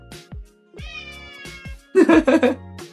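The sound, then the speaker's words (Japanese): A domestic pet cat meows several times in a row with drawn-out, wavering cries that grow louder and more insistent toward the end. No one is talking. “何森尾さん、うちの猫も心配してます。”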